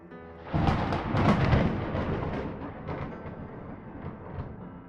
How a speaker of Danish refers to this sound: Man ser det her kæmpe store palæ, så bliver det mørkere og mørkere, der kommer grå skyer. Lyn i baggrunden.